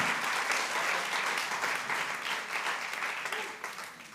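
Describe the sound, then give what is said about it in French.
A church audience applauds God steadily for about four seconds, a dense wash of many hands clapping at once that tapers slightly toward the end, with no voices heard. “Est-ce qu'on peut applaudir ce Dieu qui nous aime, ce Dieu qui est bon, qui veut servir de nous quand même?”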